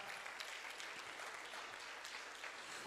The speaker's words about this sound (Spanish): Nos habla de que hubo un tiempo, apláudele fuerte al Señor que nos ha dado esa libertad.